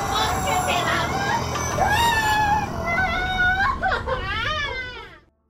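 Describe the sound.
Anguished human screaming and wailing during a recorded exorcism, with rising, strained pitches, loud, over a dense wash of crowd-like voices and noise, fading out at the end.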